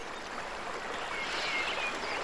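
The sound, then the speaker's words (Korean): A steady, gentle rush of stream water flowing continuously, with soft bubbling and trickling detail, fairly close and even in loudness, with no voices. “그리고 시냇물이 흐르는 좀 더 낮은 곳으로 가져가서 물레방아가 돌아가는 것을 보고 랑드리가 물레방아를 처음으로 돌리며 기뻐하던 모습을 떠올렸다.”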